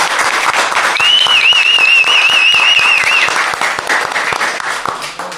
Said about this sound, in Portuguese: E palmas, né? Palmas a todos. Palmas, palmas.